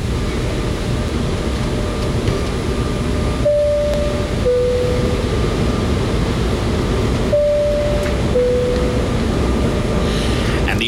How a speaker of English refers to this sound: answer I was looking for was that is the seatbelt fastening noise that you hear on an aeroplane. That's what we were looking for all this time. So if you sent in the answer seatbelt on or off sign, correct?